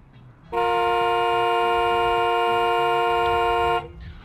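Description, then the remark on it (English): A protester's single long, loud car horn honks steadily for about three seconds over a low rumble of traffic or engine noise, then cuts off abruptly. “So if I honk, we can stay?”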